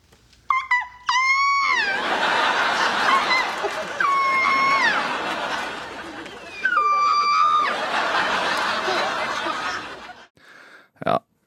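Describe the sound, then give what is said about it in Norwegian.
A man's voice, Ross Geller from the TV series Friends, imitates a velociraptor with three shrill, gliding screeches, spaced a few seconds apart, over loud, continuous audience laughter and crowd noise that fades out near the end. “Dette er uh, Ross Geller fra TV-serien Friends som oh, ja, ja, ja, etterligner lyden av en velisiraptor.”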